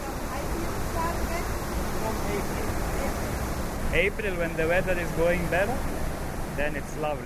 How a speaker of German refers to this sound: während er auf einen Knopf drückt und schäumend rauscht ein Wasserfall hinab.